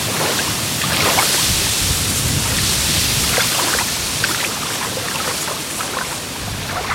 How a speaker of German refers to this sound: Wir hören was. Es klingt. Was? Ja, das Wasser. Von alleine diesmal. Ich muss gar nichts machen.